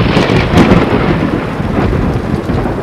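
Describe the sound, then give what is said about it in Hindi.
A loud, steady, raging thunderstorm by an old banyan tree: heavy rain hisses constantly while deep thunder rumbles low underneath, swelling briefly near the start. No voices are present. “चलते चलते हमें एक पुराने बड़ के पेड़ के पास ले आया गया तूफान जोरों पर था”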